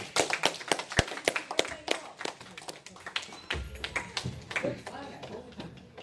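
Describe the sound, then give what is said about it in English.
An audience applauds their club president at a speaking meeting, with dense, uneven hand claps rattling for several seconds. Voices murmur and chatter underneath partway through. “Everybody give a big round of applause to the President”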